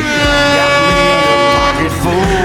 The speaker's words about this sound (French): Un petit coup de corne de brume pour vous accueillir ce soir. Allez, encore un petit coup.